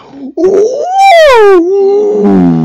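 A loud, drawn-out creature call: a single eerie howl that rises in pitch, wavers, then sinks into a rough, growling tail, like a fictional desert dragon crying out, with no talking.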